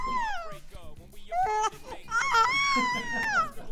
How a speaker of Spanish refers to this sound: ¿Quién cambió a la niña? ¿Por, qué está llorando?